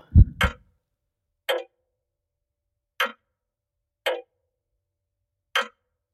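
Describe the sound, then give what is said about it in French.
Slow, isolated ticks of a wall clock in a living room, about five crisp clicks spaced a second or more apart, standing alone in silence after a soft low thump at the start. “Alors il a cessé de regarder la fenêtre et il s'est assis dans son fauteuil et il a pris pour horizon la pendule du mur du salon.”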